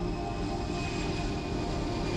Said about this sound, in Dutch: We zitten in het vliegtuig eh, van United Airlines van Amsterdam naar New York.